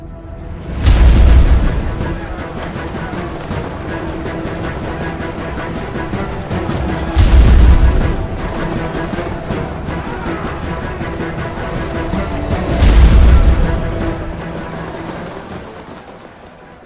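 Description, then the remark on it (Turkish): Three heavy cannon blasts boom at regular intervals as cannons bombard the besieged city of Belgrade, each a deep, loud thud rolling out over a dense, continuous rumble of battle noise in the background. “Bu toplarla Belgrad önlerine gelerek şehri kuşatıp top atışına tutmaya başladı.”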